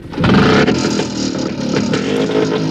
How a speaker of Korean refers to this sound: 아니나 다를까 아까 그 오토바이 족들이 굉음을 내며 우리 쪽으로 다가오더니 텐트 주위를 세 바퀴 정도 도는 겁니다.